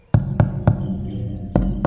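Five or six sharp taps on a tree-stump bird feeder with perches and wires stretched over them, picked up by a contact microphone in its base as resonant thuds with a deep boomy body, three in quick rhythm, a pause, then a few more.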